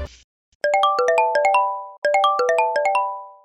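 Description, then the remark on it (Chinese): A phone ringtone, for a call made to a food delivery rider, plays a bright, chiming melody of quick plinking notes, repeating the same phrase twice with no voices, after a brief rustling noise at the start. “他就直接打电话给外送员，”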